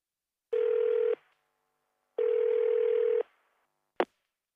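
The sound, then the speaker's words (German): Two steady electronic telephone ringing tones on a call to DKB Bank for an account inquiry, the second longer than the first, followed by a sharp click as the line is picked up. No one speaks. “Sie wollen eine telefonische Kontoauskunft von Ihrer Bank.”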